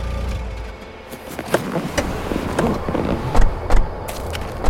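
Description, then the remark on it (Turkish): A car pulls up beside a pickup truck at the gate of the ancient city of Pergamon, on the Acropolis atop the castle hill, its engine rumbling low as tyres crunch and settle, with a few sharp knocks near the end as it comes to a stop. No one speaks. “Kendi otomobillerini onun yanına çekti Ali.”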